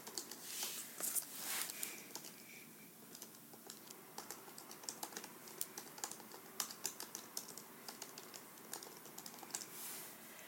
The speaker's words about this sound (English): I'm gonna see if I can pull this up real quick. If you hear my keyboard clicking, sorry. Just a little ASMR for you guys.